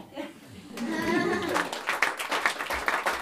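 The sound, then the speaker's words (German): A small audience of guests breaks into applause after a story reading in the studio of an old mill in Oltingen; scattered hand claps quickly build into steady clapping, with some voices audible at the start and mixed in beneath the claps. “Nach herzlichem Applaus verweilen die Gäste gerne noch ein Weilchen im heimeligen Atelier der oberen Mühle, unterhalten sich über die gehörten Geschichten und stöbern in der Märchenlesebibliothek.”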